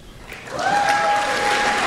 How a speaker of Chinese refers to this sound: 先是鼓掌啊，接着就喊口哨了，呃，马上就开始喊口号了。能听到吧？